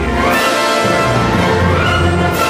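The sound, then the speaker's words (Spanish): A full orchestra plays a loud, sweeping film main theme in new arrangements over the opening credits, with sustained brass and strings swelling together and a deep low end, heard clearly with no voices. “Ese tema central escrito por John Williams que suena así durante los títulos de crédito”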